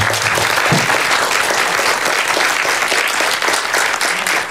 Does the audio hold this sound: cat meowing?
no